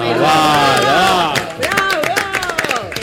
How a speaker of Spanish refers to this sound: Buenos días, buenos días, muchas gracias a la mesa por el aplauso, la verdad, fabuloso.